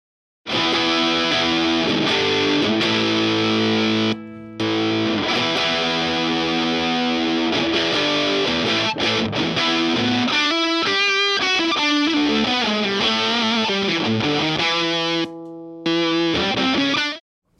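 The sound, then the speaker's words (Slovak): A loud, fuzzy, heavily distorted electric guitar played through a Fastface fuzz pedal with a round design plays thick sustained chords, breaks into quicker picked notes midway, and stops briefly twice, with no voices. “Ako ďalší by som spomenul Fastface, ktorý nám vlastne predstavuje určitý typ skreslenia.”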